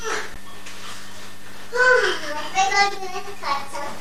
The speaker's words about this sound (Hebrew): פה הפארק, הנה פה יש אה, ילדים פה משחקים. כל הזמן יש פה ילדים משחקים.